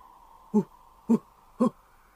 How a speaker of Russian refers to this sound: В этот момент что-то большое и белое мелькнуло в воздухе и приземлилось у его ног. Это была белая сова, очень большая, со взрослого гнома.